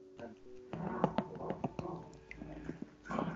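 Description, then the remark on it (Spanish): A dog whines and snuffles, with short sharp mouth or chewing sounds scattered throughout, while people talk over it. “de aquí tengo el perro.”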